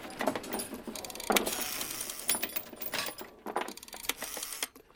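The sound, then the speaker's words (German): A metal chain, the original Huibu rattle chain used as a sound-effect prop, rattles and clinks in a continuous jangling burst, shaken with bright metallic clatter rising and falling over several seconds, no voices. “Das ist original Huibus Rasselkette.”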